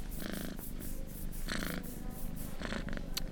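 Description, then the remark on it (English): A cat purrs steadily in a hospital, a continuous low rumble that swells in rhythmic pulses with each breath, with no other sounds around it. “Where did you come from, little guy? Since when do they let cats in hospitals?”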